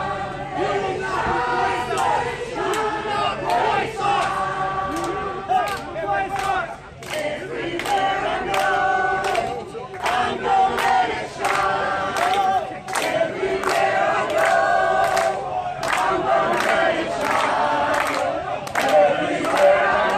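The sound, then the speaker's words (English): A large crowd of counter-protesters at a white supremacist march in Charlottesville sings a song together in unison, a loud, steady chorus of many voices with rhythmic sharp accents like claps or shouts recurring throughout. “white supremacists had gathered there to march and there were counter protesters on hand and the counter protesters at one point began singing this song we have audio from it”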